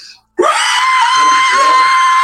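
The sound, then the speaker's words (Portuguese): A burning, clawed creature's piercing, sustained shriek bursts in abruptly after a brief silence and holds at full loudness, harsh and high-pitched, with faint low rumbling underneath. “e ela solta um grito, um guincho, cara.”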